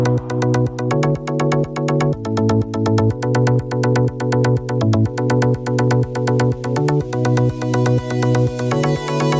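An upbeat electronic music track plays loudly on its own, with bright synth chords pulsing in a steady, repeating rhythm and a driving beat throughout, no voices over it.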